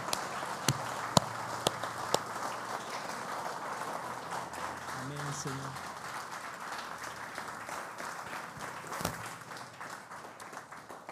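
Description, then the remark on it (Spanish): A large crowd at a worship gathering applauds in celebration of Jesus, steadily for about eleven seconds, a dense, continuous wash of clapping with a few sharper, louder claps standing out near the start and toward the end. “Así es que con todas nuestras fuerzas y con todo nuestro corazón celebremos que Jesús vive y demos a aquel que venció la muerte una lluvia de aplausos y labios que le adoren, que expresen adoración.”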